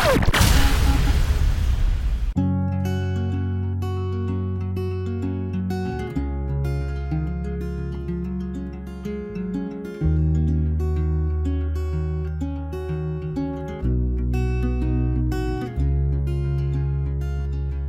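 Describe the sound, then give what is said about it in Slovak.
A brief noisy whoosh opens, then the intro of a new pop song plays loud on Rádio Paráda, with steady bass notes, sustained chords and a pulsing beat, and no singing yet. “Budeme veľmi radi, prajeme ti ešte všetko dobré a ideme si pustiť spoločnosti túto skvelú novinku.”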